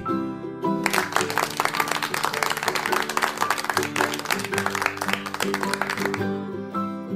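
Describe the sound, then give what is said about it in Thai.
A group of children claps steadily for several seconds, a dense patter of many hands over soft background music, starting abruptly and fading out near the end. “เมื่อชายหนุ่มเห็นว่า เด็กๆนั้นปรบมือกันแล้ว ก็รู้สึกโล่งอกที่เด็กๆสามารถเอาชนะความกลัวของตัวเองได้แล้ว”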